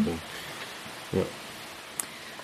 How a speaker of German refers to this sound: Ich hoffe, der Fluss war nicht allzu laut und ihr konntet uns gut verstehen.